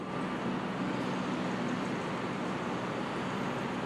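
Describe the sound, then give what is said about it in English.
A steady, dense rumble of many idling tour bus and school bus engines, piping smoke into a smoky town near Bowling Green Park, blends with the broad hubbub of street traffic. The sound is continuous and fairly loud throughout, with no one talking. “Can you hear the hubbub? All the tour buses' engines piping smoke into this already smoky town.”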